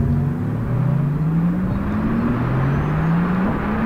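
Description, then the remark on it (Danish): A steady low rumble of an electric car in motion, with a couple of smooth tonal whines slowly rising in pitch, continuous and fairly loud, no voices. “Men hvis man ved, hvordan en normal elbil lyder, så er der meget sådan rumlen.”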